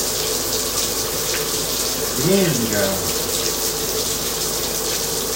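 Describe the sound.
Cold water pours steadily from a tap in a continuous hiss that fills the whole clip, with a single voice briefly exclaiming partway through.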